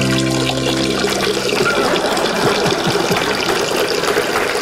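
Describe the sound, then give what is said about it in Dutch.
A person urinates into a pool: a steady stream of liquid splashes into water, a continuous bubbling trickle lasting several seconds, preceded by a brief sustained tonal hum at the start. “Ik ga plassen in de poel. Urineren in het water.”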